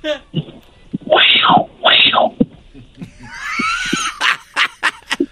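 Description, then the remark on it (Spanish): A person imitates a puma with two loud, raspy, screeching roars in quick succession, followed by a hissing, breathy sound and a series of sharp clicks and taps. “A ver, está haciendo el efecto de un puma.”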